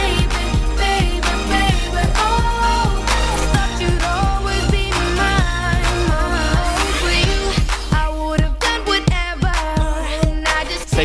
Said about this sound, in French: qui est ce morceau qui s'appelle … en featuring avec …